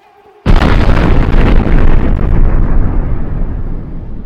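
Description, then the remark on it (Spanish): A single powerful blast from a lit dynamite cartridge thrown into a building by a river erupts suddenly after a brief quiet moment, nearly destroying the building, then rolls on as a loud, heavy rumble that slowly fades over several seconds, with no voices. “tiraron el cartucho”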